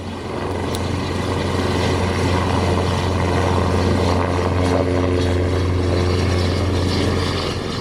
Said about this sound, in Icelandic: Það hefur líklega mörgum þótt uppörfandi að heyra þetta hljóð þegar beðið er björgunar í erfiðum skilurðum hvort sem er á sjó eða landi, hljóðið í björgunarþyrlu landhelgiskeslunar.